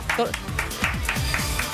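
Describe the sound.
A single person claps alone in a steady rhythm, about six close, sharp claps, while a voice talks over them.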